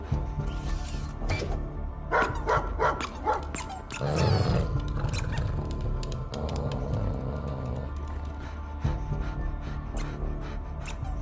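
A dog barks again and again in sharp, irregular bursts over a steady low background rumble, with a louder, busier stretch partway through before the barking continues.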